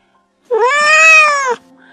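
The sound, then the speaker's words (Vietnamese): A kitten, tied by a string on its leg to a broken trivet in a kitchen, lets out one drawn-out meow as it tries to run off and is jerked back, about a second long, fairly loud, with a slightly arching pitch, followed by quiet. “Chú mèo con chẳng chịu ăn gì cả Thấy sợi dây buộc vướng chân mèo con chạy lồng ra lại bị giật lại.”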